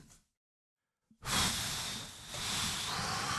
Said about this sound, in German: Ja, ich schnaufe.